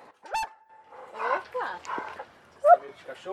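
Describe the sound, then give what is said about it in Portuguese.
A dog greets visitors arriving at a family home, barking in a quick series of short, sharp yaps and whines over about three seconds, ending with one louder bark, with some voice-like sounds mixed in. “Fomos recebidas primeiro por um cachorro”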